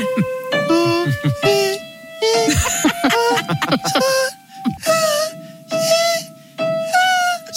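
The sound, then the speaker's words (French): A voice mockingly sings warbly vocal scales, sustaining a run of held notes in short bursts separated by brief pauses, loud, with some choppy laughing sounds near the start. “il doit écouter … faire ses gammes toute la journée”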